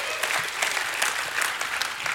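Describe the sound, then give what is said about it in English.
A crowd gives God a hand clap, clapping steadily and continuously: a dense, even patter of many hands that keeps up at a moderate level for the full couple of seconds, with no single voice standing out. “If you believe that, give God another hand clap and a shout of praise.”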